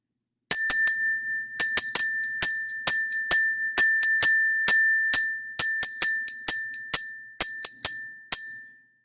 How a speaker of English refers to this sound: So I have a bell that my mom gave me from Germany. It's a crystal bell from the Black Forest. And when I ring this, it helps bring back great memories of great family times and it also is a clear, crystal bell.